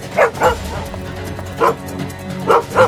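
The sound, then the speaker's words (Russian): A dog named Altai barks in short bursts, about five sharp barks in quick irregular succession, fairly loud, with faint yipping and background noise between them. “Если можно, я поведу собаку Она меня слушается Алтай, к ноге”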